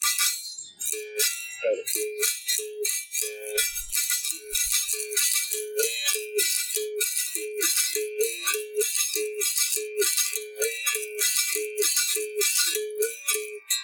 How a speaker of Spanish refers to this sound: por ejemplo, hasta el toque de caballería, por decirte uno que supuestamente dicen que hace, el sonido de los caballos. Caballería viene de, de caballo, de caballo, de caballería. Y hace así, mira.